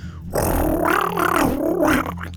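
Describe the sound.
A man imitates a large swift's call with his voice, a harsh, buzzing rattle lasting nearly two seconds that wavers between pitches, fairly loud.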